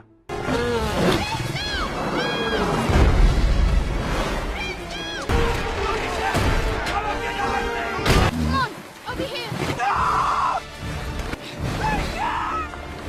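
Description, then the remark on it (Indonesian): Several heavy cannon blasts boom out at irregular intervals as soldiers fire at the lake creature Crusoe, loud, mixed with crashing and splashing sounds while voices carry on over the bombardment. “Karena para tentara mengira Crusoe adalah periskop kapal selam musuh, meriam pun ditembakkan.”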